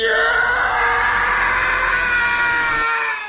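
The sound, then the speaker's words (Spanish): The Howie scream, a stock falling-man scream created in 1980 for the film The Ninth Configuration: a man's long, piercing scream holds loud and steady for about three seconds before cutting off abruptly, with no talking. “Lo que acabas de escuchar es el grito de Howie, creado en 1980 para la película La Novena Configuración.”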